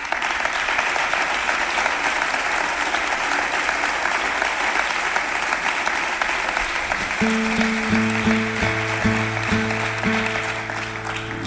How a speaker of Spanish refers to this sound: uno de los más grandes de la guitarra flamenca, que se llama, y está aquí esta noche con nosotros, …. Un aplauso, por favor. Para él.